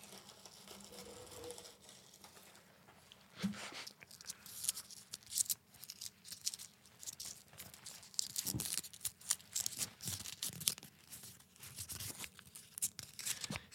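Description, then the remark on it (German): Crisp rustling and crinkling of a crumpled paper slip, with irregular bursts of crackle that grow busier after the first few seconds and continue without pause. “Ich höre es rascheln.”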